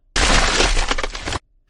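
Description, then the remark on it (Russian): The support of a huge ice ball on a mountaintop monster truck course cracks: a loud crash of something brittle cracking and shattering, a dense burst of splintering crunches lasting just over a second before cutting off abruptly into near silence. “Но чем больше монстр траков проезжало рядом с ним, тем более хрупким становилась его опора, которая в итоге треснула.”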